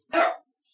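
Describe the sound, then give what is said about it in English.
A dog lets out one short, sharp bark, loud, with silence before and after it. “That was, that's the dog.”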